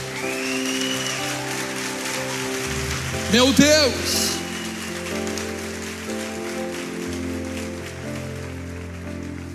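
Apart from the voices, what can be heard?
audience applause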